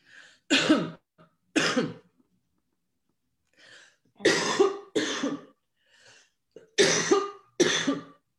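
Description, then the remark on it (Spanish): A loud coughing fit: harsh coughs arriving in pairs, six in all, separated by short gasping breaths and brief pauses. No one speaks. “Por Dios, y ahora que me dio la tos.”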